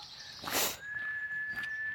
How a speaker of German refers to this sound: Hört ihr eigentlich, wie wenig hier los ist? Ist das geil oder geil? Das Einzige, was die, die, die Vögel brüllen, ficken.